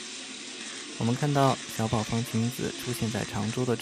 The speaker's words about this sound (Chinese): 大家听到背景声音里面不停的咔嚓咔嚓的声音，是无数的媒体的闪光灯。